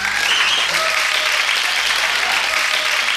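A steady burst of audience applause, dense rapid clapping from many hands filling the whole moment at a loud, even level, with no voices standing out.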